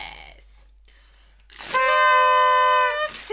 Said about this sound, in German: Das ist einfach grandios hier mit den Tröten. Richtig Immer laut. ganz schön. Ah, nerviger Ton.